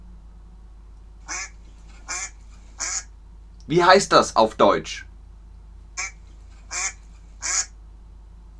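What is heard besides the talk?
duck quacking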